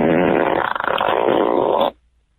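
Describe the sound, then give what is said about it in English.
A loud, sustained flatulence sound effect played by an Alexa smart speaker after it is told to cut the cheese, lasting about two seconds with a wavering, rasping texture before cutting off abruptly into silence. “Just wanted to say, Alexa, cut the cheese. May the fart be with you.”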